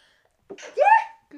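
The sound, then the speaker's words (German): One loud sneeze: a quick sharp intake followed by an explosive, slightly voiced burst that fades within a moment, with silence before it and a faint sound just after. “Gesundheit.”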